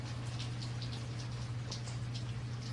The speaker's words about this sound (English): From the bus stop, he watched water pool on flower petals. Watched rain patter against the windshield of a nearby car.